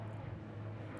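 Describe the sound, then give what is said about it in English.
A helicopter drones overhead in Los Angeles, a steady low rumble with a broad wash of engine noise that holds constant through the brief moment, with no one talking. “Sorry, that's a helicopter.”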